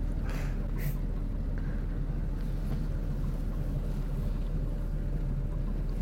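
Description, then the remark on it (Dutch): A steady, low droning boat engine rumbles continuously, with a constant deep hum and a few faint higher hisses near the start. “laat je langzaam in slaap sussen door het ronkende geluid van de motor.”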